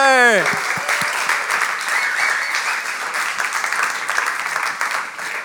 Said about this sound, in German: Ein riesen Applaus für alle Podcaster!